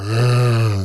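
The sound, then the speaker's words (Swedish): A voice imitates the feeble engine of an old Renault revving as the gas pedal is tapped: one short, low, buzzing vocal drone, fairly loud, lasting under a second with a slight rise and fade. “Du vet, kör du en gammal rutten Renault och så petar du på gaspedalen, då kanske den låter lite så här.”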